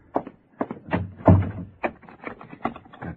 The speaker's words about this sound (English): Come in. Come in and close the door and lock it.